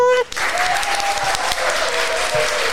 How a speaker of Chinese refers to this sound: 我们先掌声欢迎老师。